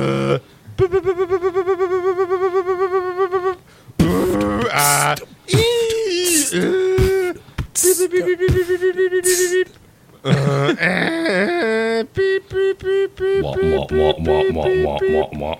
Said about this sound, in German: Ich halte ich halt, ich halt meinen Stenokord 2700 ran ans Telefon und ich glaube, damit habe ich gerade den Dubstep ah. erfunden.